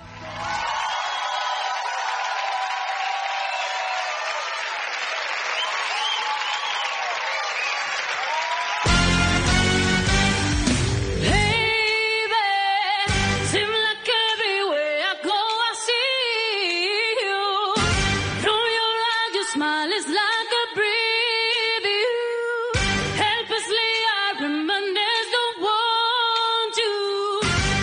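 A crowd cheers and applauds for several seconds, then a loud, punchy pop track kicks in with a singer belting over heavy, regular beats and brass-like stabs, in a live televised singing performance by a singer.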